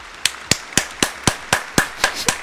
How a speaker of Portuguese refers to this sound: Palmas pra vocês todos. Deixa eu bater palmas pra vocês, velho.